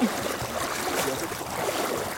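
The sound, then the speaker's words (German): Continuous watery splashing and churning of people swimming in the clear water of Lake Wakapito, New Zealand, steady throughout with no voices. “Und wenn es mal irgendwo keine Duschen gibt, gehen sie eben eine Runde schwimmen. Wie hier in den glasklaren Lake Wakapito.”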